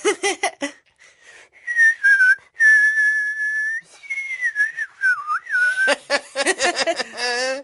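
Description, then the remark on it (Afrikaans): Someone whistles a short, wavering tune of long sustained notes, fairly loud, with brief bursts of voice or laughter just before and after. “Mosje, weet jy hoekom wou Neno leer fluit?”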